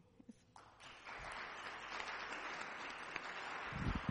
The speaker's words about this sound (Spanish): Esos aplausos son para el Señor, obviamente.